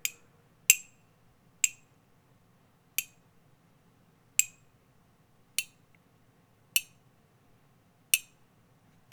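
Water drips steadily from a leak, each drop landing with a sharp, bright plink about once a second, nine drops in all against a quiet, faintly humming background.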